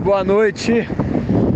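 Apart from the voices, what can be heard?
sea waves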